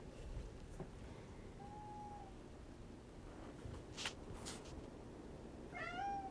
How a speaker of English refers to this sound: You know, so hold on, my cat crying. I don't know why he crying. What you want, baby? What you want? What you want? You wanna go in the closet? There you go.